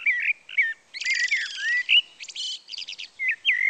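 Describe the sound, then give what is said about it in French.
Three female blackbirds chirp and chatter in spring sunshine in a quick, busy run of high calls, trills and rapid twittering bursts with brief gaps between them, and no voices. “L'oiseau-chat se demanda ce qu'elle allait faire quand elle entendit piapiater.”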